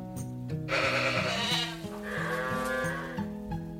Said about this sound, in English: Bah, bah, bleated the sheep.